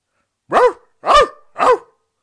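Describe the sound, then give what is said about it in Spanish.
An old dog lying inside a house raises its head and, frightened, barks three times, loud, each bark a hoarse, slightly drawn-out woof separated by short pauses, with no other sounds around it. “Levanta su vieja cabeza y asustado se pone a ladrar.”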